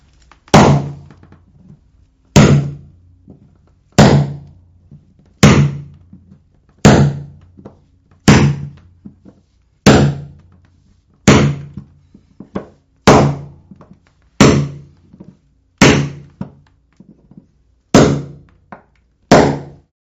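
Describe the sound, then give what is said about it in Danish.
A hammer strikes a nail set again and again, driving down all the nails in a creaking floor to pull the boards back down to the joists. There are about fourteen loud, sharp metallic whacks at a steady pace, each ringing briefly before the next blow. No one speaks. “Du skal bruge en hammer, og så skal du bruge en dyknavle, og så slår du altså alle sømmene ned, så du ligesom får trukket brættet ned til bjælke, bjælkelaget igen.”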